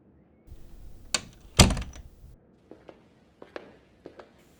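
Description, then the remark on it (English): A side door opens with a click and a heavy thunk as it swings, then shuts, followed by several lighter knocks and footsteps fading. No one speaks. “thanks for using the side door.”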